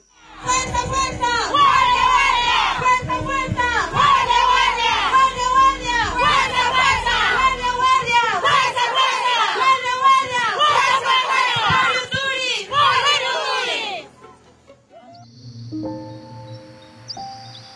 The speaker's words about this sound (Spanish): Al grito de fuerza, fuerza, guardia, guardia, estas mujeres cuidan su territorio como las hormigas Yuturi.